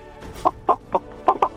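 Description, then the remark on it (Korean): A person imitates a chicken's clucking in a vocal-impression contest, giving five short, sharp bursts in an uneven rhythm, fairly loud with nothing else around it. “음, 어떤 거 하시겠습니까? 뭐닭 울음소리 뭐.”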